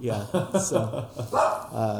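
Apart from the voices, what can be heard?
dogs barking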